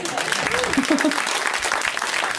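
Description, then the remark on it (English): An audience at a live show claps steadily for homemade queer Halloween costumes, a dense, even patter of many hands at a fairly loud level for a couple of seconds, with a few faint voices mixed into the applause. “So just a round of applause for the fact that we already have this stuff.”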